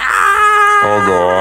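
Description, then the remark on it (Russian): A voice imitates the Wilhelm scream: one loud, drawn-out cry lasting about a second and a half, with its pitch shifting partway through. “Крик Вильгельма, это, в общем, когда кто-то падает э, с, со скалы и такой...”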